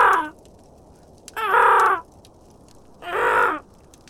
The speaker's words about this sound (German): Mittlerweile hatte sich das Krächzen der anderen Raben zu einem lauten, schrillen Singsang gesteigert.